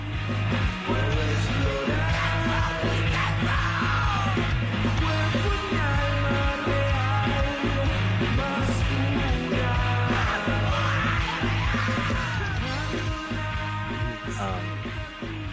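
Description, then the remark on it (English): Loud, dense screamo emo rock song from an EP, with distorted guitars and pounding drums, a harsh screamed vocal tearing over the wall of sound throughout, unrelenting from start to finish. “my favorite song is uh, "…"”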